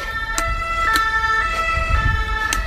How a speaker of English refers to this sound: So here we are in Oviedo, eventually. It's about half past six at night. Big city feel, as you can tell, probably from the background. Traffic noises, sirens, all the usual kit and caboodle.